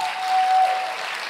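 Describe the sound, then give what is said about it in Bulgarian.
An audience applauds with dense, steady clapping that swells slightly midway and then holds even, with no voices heard over it. “може да ръкопляскаш, да, може да ръкопляскаш.”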